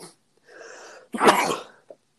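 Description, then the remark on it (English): A single loud sneeze: a drawn-out voiced inhale builds for about half a second, then bursts into a sharp, explosive release, followed by a brief small sniff. “Bless you.”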